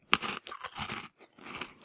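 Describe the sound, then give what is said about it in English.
Close-up crunchy chewing, a quick series of wet, crackling bites and mouth noises in irregular bursts, loud and right at the microphone with no talking. “Did I just chew over you?”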